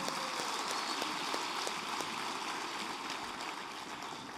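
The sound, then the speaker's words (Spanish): An audience at a church service applauds the Lord in a dense, steady wash of clapping that holds for several seconds, many hands at once, fairly loud, with no one speaking over it. “Dale un fuerte aplauso al Señor.”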